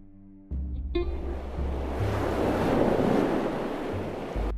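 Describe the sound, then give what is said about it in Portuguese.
A loud, rushing roar of Red Sea water swells up suddenly and surges steadily as the sea parts in two, leaving a path of dry land, like waves churning and crashing, over a low rumbling drone underneath. “Quando Moisés obedeceu, a água se separou em duas partes, deixando um caminho de terra seca no meio do mar.”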